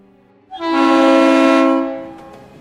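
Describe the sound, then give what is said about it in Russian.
A single long, loud freight train horn blast with a rich harmonic tone, sounding for over a second before trailing off into low rumbling background noise. “В товарном поезде все едут стоя, и стоя спят.”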